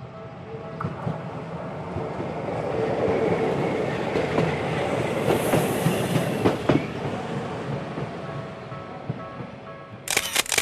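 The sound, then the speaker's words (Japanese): A Setagaya Line streetcar in Setagaya, Tokyo, rolls along its rails with a steady low rumble and rattling wheel clicks, a brief high squeal near the middle, and sharp clacks at the very end; no one speaks. “続いては、再び世田谷線に乗り込み、招き猫の発祥と言われるお寺へと向かいます。”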